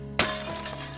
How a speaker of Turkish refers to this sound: Bu pirinçten yapılmış, erimiş kurşuna batırılmış ve Süleyman'ın mührüyle damgalanmış bir şişeymiş. Balıkçı şişeyi ağlardan kurtarmış ve kırmış.